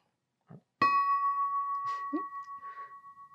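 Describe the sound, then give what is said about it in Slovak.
A single strike on a 7.6 kg cast bell, cast in 2020 in eastern Slovakia, rings out with a bright metallic clang, then a clear sustained tone, a strike tone of C-sharp 4 that is slightly flat, humming steadily for several seconds, with faint handling sounds. “Tento zvon by mal byť nárazového tónu CIS-4, ktorý je mierne podladený a vlastne má byť zladený s mojimi ostatnými zvonmi, ktoré som si nechal zhotoviť.”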